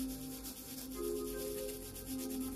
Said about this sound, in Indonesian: copot bajuku lalu aku terus menggaruk. Semakin kencang, semakin terguncang.